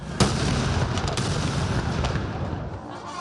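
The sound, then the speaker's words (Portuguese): A cannon salute booms outdoors in São Paulo, Brazil, opening the 7 September celebrations on a rainy day: one sharp, loud blast near the start, followed by a few fainter reports under a steady wash of rumbling crowd and ambient noise. “Uma salva de tiros de canhão foi o início das comemorações do 7 de setembro em São Paulo.”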